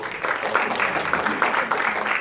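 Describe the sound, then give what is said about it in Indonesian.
A crowd applauds steadily to thank a speaker after a discussion of data as labor versus data as an asset, a dense, even wash of many hands clapping at a moderate level with no voices standing out, sustained throughout. “Terima kasih tepuk tangan untuk”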